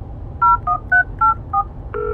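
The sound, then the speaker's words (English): Five quick two-tone keypad beeps as a number is dialed on a telephone, followed by a steadier tone starting at the end, all over a low background hum with no talking. “Even after making three separate calls, no one picked up the phone.”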